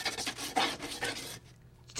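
Scratchy strokes of a pen or pencil on paper, a quick run of about five raspy bursts that stop abruptly, followed by near silence and one faint final scratch.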